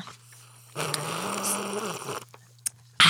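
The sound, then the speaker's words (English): A single drawn-out sip of water lasting over a second, with a soft, noisy slurping texture, followed by a quiet pause and a short click at the end. “taking a decadent sip of because water.”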